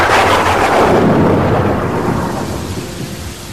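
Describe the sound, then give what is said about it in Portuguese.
Steady rain hisses throughout while a loud roll of thunder rumbles at the start and slowly fades away; no voices. “Enfim, ele veio para São Paulo, voltou para o Rio e estou aqui na chuva com meu copinho de cerveja vazio esperando este babaca.”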